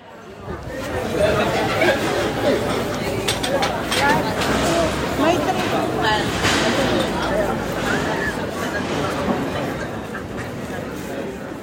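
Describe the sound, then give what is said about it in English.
A steady hubbub of many overlapping voices of tourists fills the streets around the church of San Michele in Foro in Lucca, Tuscany, Italy, in June, with indistinct chatter and murmurs blending into a continuous crowd wash, footsteps and small clatters scattered through it. “What you're hearing around me is the sound of life in the streets around the church of San Michele in Foro in the Tuscan city of Lucca.”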